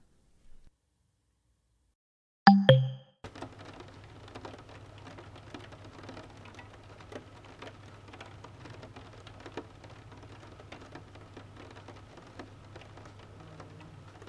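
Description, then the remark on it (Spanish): Steady summer rain at 3 in the afternoon patters softly on a surface, with scattered sharper drops and a low hum underneath, following a short silence and a brief loud knock near the start. “Son las 3 de la tarde y esta lluvia de verano me confunde.”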